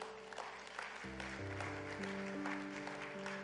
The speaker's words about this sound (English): So I just want to give a hand clap and a praise the Lord for all you who have given.